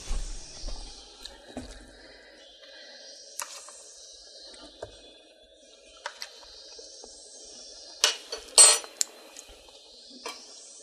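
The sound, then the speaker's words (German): A metal spoon clinks against dishes as it is fetched to taste potato salad, a handful of sharp bright taps spread unevenly over several seconds, with a louder cluster of clatter near the end and no talking. “Dann hole ich mir mal einen Löffel. Und dann werde ich mal probieren.”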